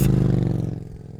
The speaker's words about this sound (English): He revved his bike's engine and took off.